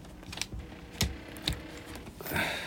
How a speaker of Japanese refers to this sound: うるさいでしょ、このエアコン。これね、どうなってるんですかね、ちょっと。